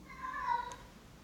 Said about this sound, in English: What was that? That was Ziggy. Was that... Really? Yeah, that cat's terrifying sometimes. He's a big old cat.